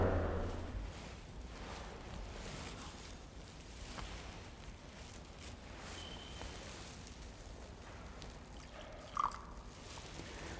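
A faint trickle and drip of water being poured into wine in a chalice, with a brief soft splash near the end, set against hushed low background noise and no talking.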